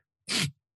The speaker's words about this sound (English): I got sneeze. Hold on.